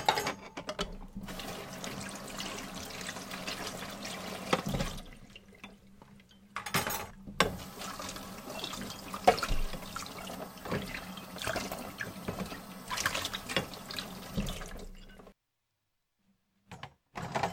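Dishes being washed under a running tap: a steady rush of water with clinks and knocks of crockery, interrupted by brief pauses, then near silence before a final splash.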